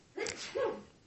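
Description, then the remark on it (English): A single sneeze: a breathy, hissing burst followed by a short voiced, tonal release, sharp and fairly loud, with no talking around it. “Bless you.”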